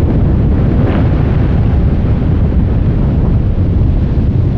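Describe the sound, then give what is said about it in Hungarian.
A huge glacier collapsing: a continuous deep, heavy roar with thick low rumble, steady and loud for the whole stretch, with no voices. “Amit most hallanak, az egy hatalmas Gletscher folyam beszakadása, ami úgy tűnik egyre gyakoribb jelenség lesz a következő időszakban.”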